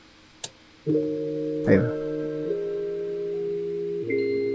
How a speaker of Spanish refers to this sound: ¡A huevo! El sonido de la Game Boy.